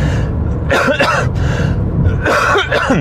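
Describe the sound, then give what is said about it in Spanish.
A person coughs several times in quick, harsh bursts, with a steady low rumble underneath and no speech. “sí que tengo algo de tos, pero creo que no está relacionado con el virus, creo que eh, estamos todos un poco resfriados en casa porque no tenemos ningún otro síntoma.”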